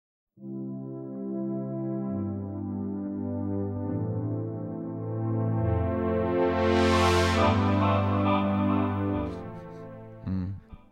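A synth-pop track plays with thick, sustained synthesizer chords shifting beneath a steady melody, swelling louder and brighter midway before cutting off near the end.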